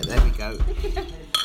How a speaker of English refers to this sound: And can we get some ice cubes clinking?